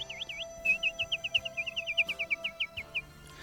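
nightingale singing

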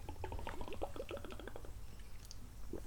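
drinking water

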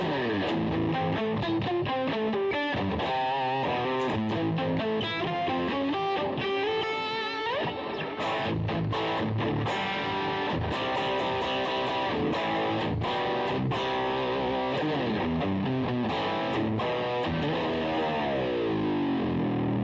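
distorted electric guitar riff

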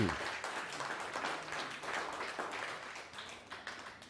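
audience applause

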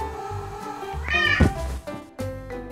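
cat meowing

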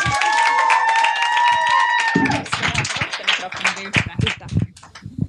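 audience applause and cheering

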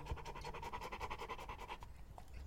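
dog panting and barking

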